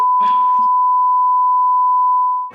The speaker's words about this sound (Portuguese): Saiu o som? Saiu o som aí? É Saiu. Saiu. Saiu. É meu alarme, gente. Desculpa.